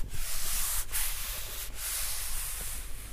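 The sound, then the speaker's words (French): A very dry goat leather hide being rubbed in a steady, continuous scratchy friction with a couple of brief louder strokes. Moderately loud, with no talking. “Ça, c'est une peau très sèche.”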